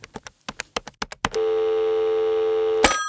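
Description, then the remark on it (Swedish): A quick run of about nine short dialing tones as a phone call is placed to a researcher, followed by a long steady ringing tone that holds for about a second and a half before cutting off abruptly; no voices. “Vi ringer Daniel Söderberg och frågar.”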